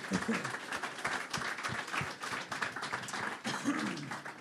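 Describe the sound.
A short burst of applause for the network chief who set up and organized everything today, many hands clapping in a dense, steady patter that stays fairly loud throughout, with a few voices mixed in.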